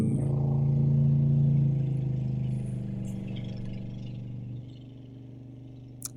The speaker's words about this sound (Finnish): tässä oli siis tällainen pikavene, joka tuosta Reposalmen päästä kiihdytti kohti ulappaa, jos tuota ääntä kuulitte taustalla.